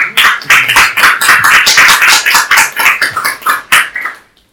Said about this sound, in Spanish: Un fuerte aplauso para nuestros